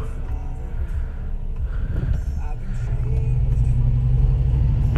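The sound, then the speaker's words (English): A heavy crane truck, a truck fitted with a crane rather than one for driving on the highway, rumbles with a deep, steady low drone that grows louder and fuller over the last few seconds as it idles and revs slightly. “I mean, yeah, it's a truck and it got like a crane on it, but it ain't no truck to like drive on the highway.”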